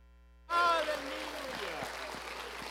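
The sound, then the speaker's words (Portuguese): A church audience at the Desperta 2023 event breaks into sudden, loud applause for the Lord that holds steady as a dense wash of clapping, with raised voices cheering through the first moments. “Ó Espírito Santo de Deus aplauda mais forte o Senhor.”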